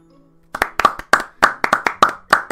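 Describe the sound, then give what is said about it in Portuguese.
A short burst of applause: about a dozen sharp hand claps in quick, slightly uneven succession, starting after a brief moment of near silence, with no voices. “Esses aplausos demoram para chuchu para acontecer.”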